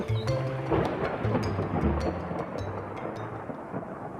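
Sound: rain falling with thunder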